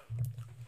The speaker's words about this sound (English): I just burp.